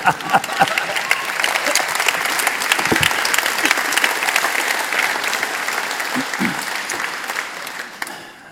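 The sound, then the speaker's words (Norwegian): Sustained audience applause, a dense steady wash of many hands clapping that holds strong for several seconds before gradually thinning out at the end. “Med gjerne en klapp.”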